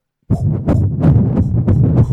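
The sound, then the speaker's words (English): A fetal heartbeat of a musician's son recorded in utero and used at the start of a dubstep track, with the beat written around it: rapid, steady whooshing pulses about three per second over a muffled, rumbling background, with no voices. “at the start is his son's in utero heartbeat.”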